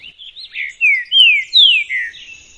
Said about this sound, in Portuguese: se tem alguma variação regional, você tem uma tendência grande de terem sotaques aí, porque diferentes aves, diferentes regiões acabam aprendendo diferentes versões é, do canto. É, igual a gente está ouvindo aí, ó, vamos ouvir aí esse aí do Paraná.